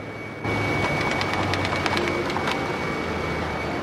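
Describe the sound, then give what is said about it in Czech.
A mail sorting machine rattles loudly as postcards click through it in a quick, rapid series of snaps over a steady mechanical roar, the clicking fading after a couple of seconds while the hum continues. The machine reads postal codes and sorts the postcards into bins. “Tak, tak rychle, jak jste slyšeli, cvakat pohlednice.”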